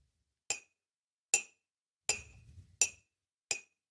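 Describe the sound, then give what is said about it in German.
Five sharp, bright clinks from a cup being tapped alternately at two spots, one spot giving a higher pitch, evenly spaced, each ringing briefly with a high pitch. A low rumble sits under the third and fourth taps. “Ja, ja ich habe auch extra eine Tasse rausgesucht, gerade bei der man es besonders ja, aber deutlich ich hör, hört.”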